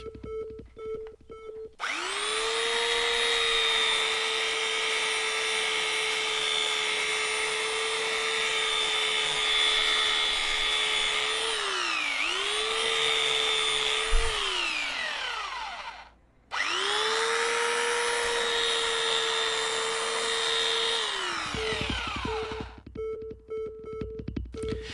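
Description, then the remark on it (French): A power tool roughly cuts wooden planks for wall shelves, before they are sanded, with a loud, steady, high motor whine. Its pitch dips briefly under load, then it stops for a moment before running again. “Là, je découpe grossièrement les planches et après, je vais les poncer.”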